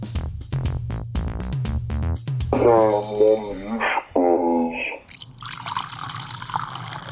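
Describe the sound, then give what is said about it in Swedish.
Sangria is poured into a glass, the gurgling pitch rising as it fills in two short pours, after some rhythmic clattering and followed by a steady fizzy hiss. “Det ni precis hörde var ett glas av sangria som precis hälldes upp”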